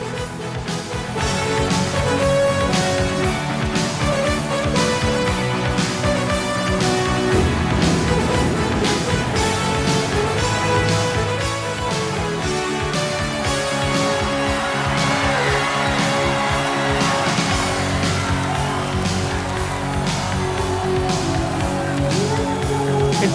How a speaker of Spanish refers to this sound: que estamos escuchando es … de la banda … 1986.